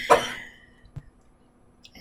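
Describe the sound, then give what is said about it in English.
A single sharp cough bursts out at the start, followed by a brief quieter throat sound and near silence, with no talking. “Excuse me, i might have a cough.”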